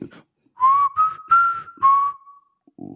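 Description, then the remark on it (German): A person whistles a short song melody: a few sustained, clear notes stepping slightly in pitch over about two seconds, with brief voice sounds just before and after. “Ich kann nicht pfeifen.”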